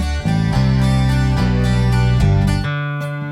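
Loud, full-band rock music from a mashup of two rock tracks plays on its own, driving bass and layered guitars shifting chords every half second or so before settling into a sustained final chord.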